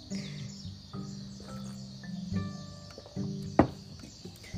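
Small birds chirp and twitter in the morning, short bright calls repeating over a steady low tonal hum, with one sharper louder chirp near the end.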